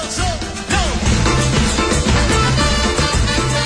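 A band plays live at full, steady volume, with dense instruments and percussion layered together and a few gliding tones rising over the mix.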